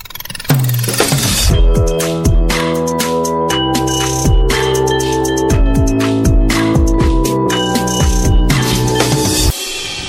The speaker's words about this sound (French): Écoute, on passe au sujet suivant, t'es ok Allez, je mets un petit jingle et on y va.